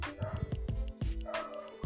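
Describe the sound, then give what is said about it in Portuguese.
A dog barks several times in quick, uneven succession, sharp yaps mixed with a slightly whiny tone, far away, clear with no talking over it. “Grãos de areias aos pés, grãos secos aos pés um cachorro a latir.”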